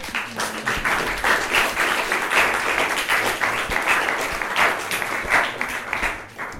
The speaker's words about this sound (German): Ähm, und da kann man auch mal klatschen, liebe Leute.